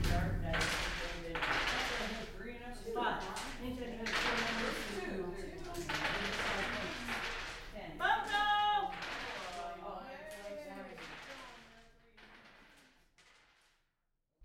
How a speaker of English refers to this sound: arriving at the koa i just bask in the ac of the lounge room while a group of older women are playing a dice game providing a soundtrack to the day's end